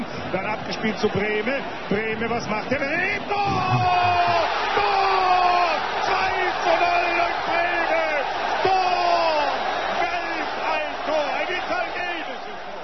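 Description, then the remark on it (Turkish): A roaring crowd fills a football stadium during a match with sustained cheering and yelling, while a commentator shouts excitedly over the din, calling a goal, rising and falling in pitch throughout. “Bir futbol maçı. Spikerin ve seyircinin heyecanlı bağırışından bunun bir stadyumda olduğunu anlıyoruz ve gol sözcüğünü duyduğumuza karar veriyoruz.”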